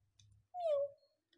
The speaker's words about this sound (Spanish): Volvió a resonar el maullido de un gato. Solo la madre tierra sabía en dónde estaba.